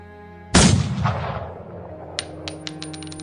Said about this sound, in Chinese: 剧烈的枪声在我耳畔响起